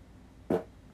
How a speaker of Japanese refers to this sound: あ、おなら出ちゃった。